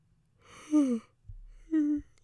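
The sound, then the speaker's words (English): A breathy yawn: a drawn-out voiced tone that slides downward, then a brief pause and a shorter voiced exhale at the end. “there's gonna be so many, so much yawning this episode.”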